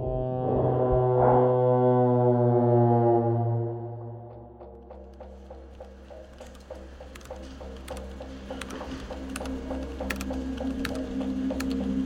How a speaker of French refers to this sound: Il appuie fébrilement sur la touche F5 de son clavier d'ordinateur pour voir s'il y a du nouveau.